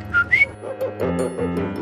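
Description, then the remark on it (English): A person whistles an imitation of the call of the coqui, a small frog endemic to Puerto Rico: a short flat tone followed by a higher, upward-sliding note, like its "co-qui." A low voiced murmur follows. “Coqui, the name is because it sings like that.”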